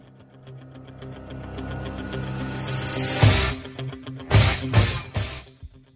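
Instrumental rock intro of a song linked to the 1976 film Rocky, played as question 9 in a music quiz: a low, steady drone of guitar tones builds for a few seconds, then several loud, punchy band hits land in a stop-start rhythm. No voices.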